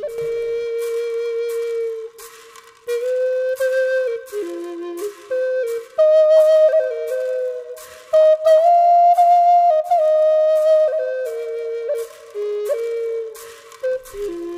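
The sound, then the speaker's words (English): A Native American flute plays a slow, lilting melody of sustained, breathy notes that glide between pitches, heard alone with no voices; a recorded track released in 2002 by a Native American flutist. “is a Native American flutist, and this track, released in 2002, is one of her most popular”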